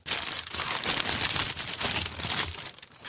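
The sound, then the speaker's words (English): Continuous crinkling and crumpling of wrapping paper, fairly loud, with dense crackly bursts that swell and ease over a few seconds, no voices. “In fact, we'll give you some audio wrapping paper now.”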